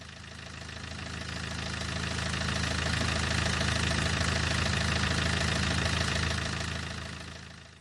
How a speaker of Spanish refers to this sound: El silencio solo era interrumpido por el sonido del motor de los móviles que estaban estacionados en la vereda de la calle.